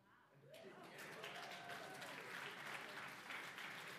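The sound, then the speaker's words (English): After a brief quiet moment, an audience bursts into steady, loud applause that keeps going to the end, with scattered whoops and crowd voices mixed into the clapping. “No applause?”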